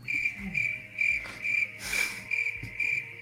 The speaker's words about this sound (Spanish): Es eso, es escuchar grillos. Los escucho, pero no me están diciendo nada.